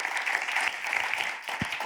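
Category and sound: crowd, audience applause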